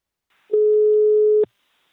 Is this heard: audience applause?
no